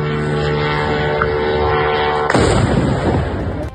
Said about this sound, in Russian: Мэр Собянин пояснил, на подлете к Москве был сбит беспилотник, жертв и разрушений нет. Момент уничтожения дрона в небе над Люберцами зафиксировали жители Подмосковья.